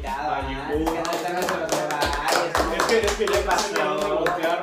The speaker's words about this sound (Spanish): Un aplauso